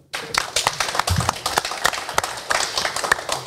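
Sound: applause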